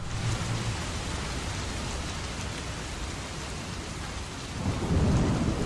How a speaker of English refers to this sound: Cue the rain